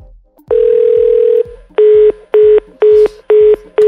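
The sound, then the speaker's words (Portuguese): A steady telephone tone holds for about a second, then breaks into a run of five short, evenly spaced loud beeps as a phone call to a man is tried once more. “Ah, não, vamos ligar mais uma vez.”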